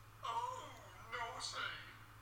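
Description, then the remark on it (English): A voice imitates a bawdy 1960s-style bell sound effect in two rising, sing-song bursts, clear, with no other sounds around it. “bawdy '60s bell, which we will sound at moments where sexism, racism, or anything that ends in ism um, happens that we feel probably wouldn't be acceptable nowadays, and it sounds like this.”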